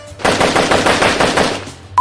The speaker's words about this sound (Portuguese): São, são quatro pessoas em duas motos. Uma pessoa guiando a moto e outra com a metralhadora atrás, descarregando no carro.